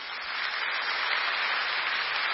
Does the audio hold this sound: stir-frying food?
no